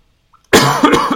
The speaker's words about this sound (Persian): من یه سرفه میکنم ولی کووید و انشالله ندارم